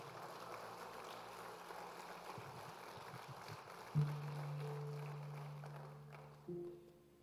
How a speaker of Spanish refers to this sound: New Season, esta es la hora de levantarse. Vamos a ese aplauso fuerte al Señor.